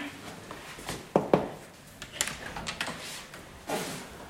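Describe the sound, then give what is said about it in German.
A cleaner holding a spray bottle for sanitary facilities knocks on a room door, two sharp knocks in quick succession, followed by faint shuffling and handling noises. “Dann nehme ich meine Sprühflasche für die Sanitäranlagen und klopf erst einmal an.”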